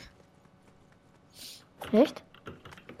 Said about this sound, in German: Ich weiß nicht wieso, aber deine Tastatur die hört sich übertrieben chillig an.